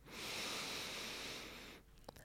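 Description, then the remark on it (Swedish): A long, steady, deep inhale through the nose, filling both chest and belly with air, a soft airy hiss lasting nearly two seconds before stopping, alone with no talking. “Andas in genom näsan, fyll upp både bröstkorgen och magen med luft”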